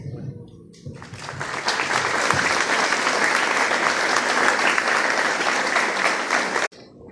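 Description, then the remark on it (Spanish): A crowd breaks into steady, loud welcoming applause after a brief pause, at a school government event, greeting the municipal ombudsman (personero municipal) before his speech; a dense wash of clapping that holds evenly for several seconds before stopping abruptly. “A continuación, y con un aplauso de bienvenida de nuevo, Vamos a escuchar las palabras del señor personero municipal, doctor Fernando Augusto Martínez.”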